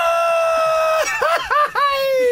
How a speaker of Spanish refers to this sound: ¿Cómo sería un grito mexicano? Pero no, no, ¡Ah!